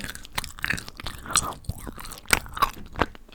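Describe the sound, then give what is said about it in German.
Crunchy chewing of a chocolate praline of hazelnut in caramel with nougat cream, with irregular crackling bites and wet mouth sounds over a few seconds, no talking. “Daraufhin Ein Haselnuss in Karamell mit Nougat-Creme und Schokolade.”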